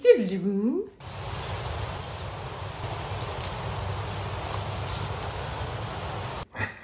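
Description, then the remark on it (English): A person briefly imitates the thin, wheezy song of a blue-gray gnatcatcher with a rising and falling squeak. Then four high, thin wheezy phrases repeat at intervals over a steady background hiss. “And I have that it has a thin, wheezy, noted song. It does. Like, spee,”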